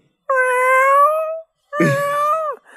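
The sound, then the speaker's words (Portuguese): A person imitates a cat with two long, loud meows, the second starting rougher and sliding down in pitch at the end, with a short pause between them. “Mia aí pra mim.”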